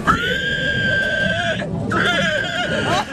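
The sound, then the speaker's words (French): A human voice imitates a pig squeal at an amateur pig-squealing contest in Angle sur l'Anglin, by the contest winner: two loud, shrill, sustained squeals separated by a brief pause, the second one wavering and rising at the end. “grand gagnant du concours du meilleur cri de cochon”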